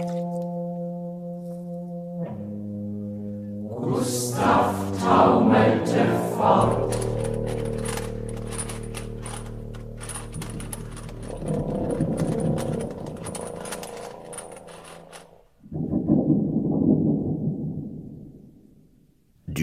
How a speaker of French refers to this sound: champagne comme instrument de musique, avec entre autres autour de lui un tuba de percussionniste avec boulettes de papier, feuilles de carton, chaînes de fer, guiro, un livre, une bougie et une sonnette.